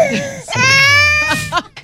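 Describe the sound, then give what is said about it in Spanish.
A person cries loudly, a high, strained wail that rises and wavers before breaking into short, shaky sobbing gasps at the end. “¿Quién está llorando?”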